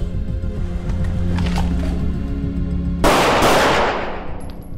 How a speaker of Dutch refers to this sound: We gaan uitstappen naar links. Uitstappen naar links en reageren met één schot.